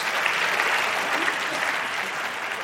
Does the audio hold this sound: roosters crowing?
no